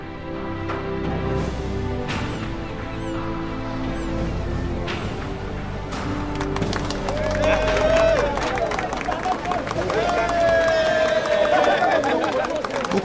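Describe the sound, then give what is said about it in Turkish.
A large crowd applauds and cheers at the large post office building in Sirkeci, Istanbul, then a courthouse, celebrating an acquittal as the acquitted man comes down the stairs. Scattered claps over a constant roar of voices that swells louder halfway through, with shrill whistles and excited shouts rising above the noise. “Merdivenlerden inerken kendisini görmeye gelmiş olan kalabalıkta bir alkış kopar. Sevinç sesleri doldurur ortalığı.”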